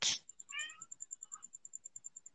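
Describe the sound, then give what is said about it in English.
A cat walking out of its cat house gives one short, clear meow just after a brief burst of noise, with a faint second sound moments later, while a steady rapid high-pitched ticking runs underneath. “My cat just the, walked out of the, the cat house.”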